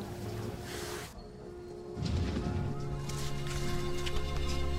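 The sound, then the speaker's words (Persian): A bird perched on a chandelier branch squawks and honks harshly in repeated bursts, loud, with a steady background hum underneath and no talking. “آهای خانم پرستار خانم پرستار خواهش میکنم به این پرنده لعنتی بگویید که کاری به کار بالهای من نداشته باشد آخر من میخواهم چیز بنویسم”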